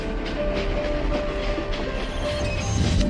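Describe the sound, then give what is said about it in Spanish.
A train rumbles steadily along the rails with a continuous low roar, faint rhythmic clatter and a thin metallic whine, for a few seconds without any voices. “Próxima parada, Kodama Station. Tu viaje hacia la cultura y el conocimiento.”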